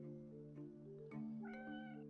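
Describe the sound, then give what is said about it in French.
A cat meows in a drawn-out, wavering yowl lasting about two seconds, its pitch shifting partway through. The sound is fairly loud and steady, with no talking. “Et oui, pourtant, même s'il est commun, ce chat est unique.”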